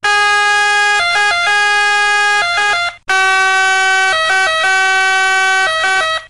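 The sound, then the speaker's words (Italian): A loud ambulance siren cycling through a rapid multi-tone wail, heard in two bursts split by a short break, its pitch higher as the ambulance approaches and lower as it moves away, a Doppler shift. “Cioè se l'ambulanza sta andando 50 km all'ora abbiamo un più 4% all'andata quando si avvicina e un meno 4% al ritorno, cioè quando si allontana.”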